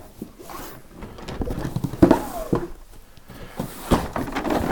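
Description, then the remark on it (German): A cup that should not go in the dishwasher being rinsed by hand under running water, with splashy patter and a few clinks of the cup against the sink, irregular and moderately loud with no talking. “Ich spüle mal einen Becher aus, den man nicht in die Spülmaschine tun will.”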